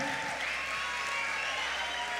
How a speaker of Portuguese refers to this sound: Deixa vamos Deus aplaudir Jesus, amém. vamos aplaudir Jesus. Se você ama Jesus, aplauda Ele com força, com força, com força. Aleluia.